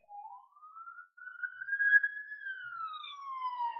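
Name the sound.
ambulance siren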